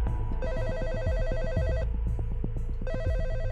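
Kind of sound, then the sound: household object, telephone ringing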